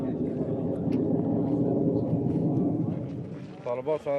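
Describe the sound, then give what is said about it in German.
Military drones hum steadily overhead during the war, heard at an old German army (Bundeswehr) camp now taken over by the Afghan police, a dense, continuous low drone that fills the air for several seconds before a voice begins speaking near the end. “Wir hören den Krieg, zum Beispiel die Drohnen in der Luft.”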